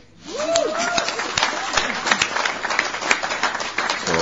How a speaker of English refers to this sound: Also, I just want to give her a round of applause because that was a maiden share as well.